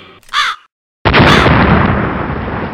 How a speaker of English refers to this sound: There you go. Caw.